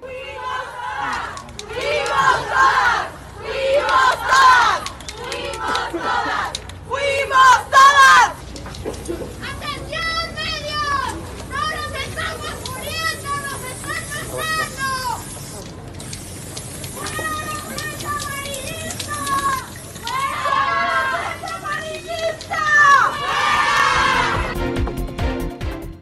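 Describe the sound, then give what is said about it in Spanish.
A large crowd of high-pitched voices, members of feminist organizations protesting outside the Palacio Nacional over the femicide of Ingrid Escamilla, chants and shouts loudly, starting with rhythmic bursts of unified chanting, then breaking into overlapping cries and yelling that carry on continuously. “Esta mañana, integrantes de organizaciones feministas se congregaron afuera de Palacio Nacional para protestar por el feminicidio de la joven Ingrid Escamilla.”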